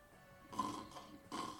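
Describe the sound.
A person imitates snoring with two rough, raspy breaths, each drawn out for a moment with a short gap between them, moderately loud with no talking.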